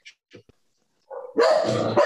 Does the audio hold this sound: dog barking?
yes